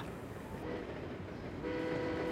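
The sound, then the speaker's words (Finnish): A train in the Rhine valley rumbles steadily along the tracks, its dense low clatter continuous, with a faint tonal hum rising near the end and no voices. “Reinilaksossa kulkevat junat pitävät minua aluksi hereillä, mutta päivien myötä totun tasaiseen kolinaan.”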